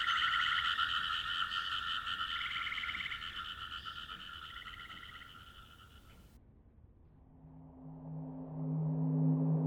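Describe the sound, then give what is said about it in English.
A recording of frog sounds found online: a dense chorus of frogs trills and croaks loudly and continuously, then cuts to a deeper, steady droning croak for the last few seconds. No voices are heard. “I found frog sounds online and found them intoxicating and relaxing.”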